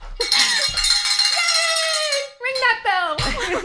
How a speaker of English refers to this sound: I think that's worthy of a bell ring. You want to oh ring the bell?